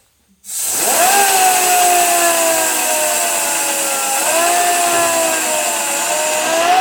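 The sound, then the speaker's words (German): A loud, steady rush of compressed air being let out, starting abruptly and hissing continuously with a faint whistling tone riding on top, about as loud as a vacuum cleaner, with no talking. “So, ich muss jetzt noch mal ein bisschen Luft rauslassen, wird aber nur so laut wie ein Staubsauger.”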